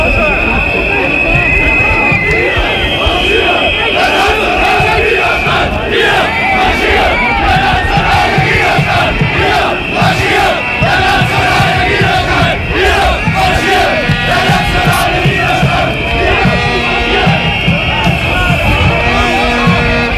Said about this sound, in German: Äh, natürlich, auch der Protest befand sich ganz nah äh, dran, also das Pfeifen und äh, verschiedene Störgeräusche kommen dann von den Protestierenden